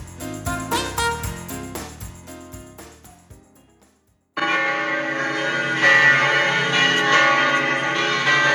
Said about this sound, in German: Wir läuten ein das Jahr 2021 auch bei hotelier.de die schönen Glocken in Berchtesgaden.